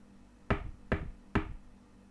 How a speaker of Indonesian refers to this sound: Mengetahui kejadian itu, Umar pun mendatangi pondok dan mengetuk pintunya.